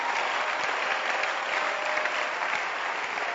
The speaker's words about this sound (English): Can you clap your hands for the man who is projecting the scriptures?